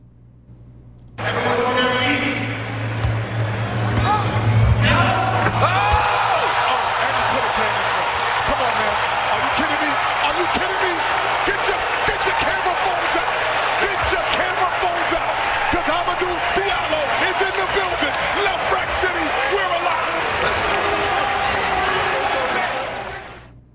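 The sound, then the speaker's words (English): A basketball arena crowd at All-Star Weekend erupts into a loud, sustained roar of cheering after Hamidou Diallo's Superman slam dunk over Shaq, as broadcast by TNT, with a sharp hit early on and voices buried in the noise for about twenty seconds. “You just heard the highlight of All Star Weekend: Hamidou Diallo's Superman dunk over Shaq, courtesy of TNT.”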